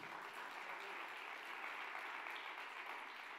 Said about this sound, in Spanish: De otro aplauso fuerte al Señor.